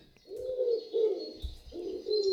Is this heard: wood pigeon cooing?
yes